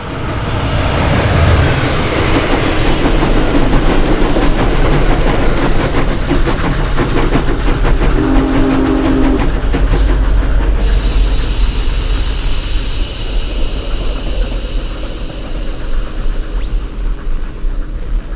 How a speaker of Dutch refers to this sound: Nou, dan komt de trein eh, langs.